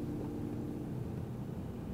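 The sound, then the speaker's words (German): Steady low rumble of a car interior while driving on the way to an Asian grocery store, a constant engine and road drone with no voices, filling the whole stretch at an even level. “Wir sitzen gerade im Auto auf dem Weg zu dem Dao.”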